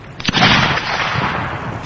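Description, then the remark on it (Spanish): A sharp gunshot from a ship cracks out during a naval battle, followed by a dense, rumbling wash of gunfire and booming as men return fire, continuing steadily like a battle raging at sea, with no voices. “Un disparo por parte de un navío ha alcanzado a Nelson derribándolo al suelo”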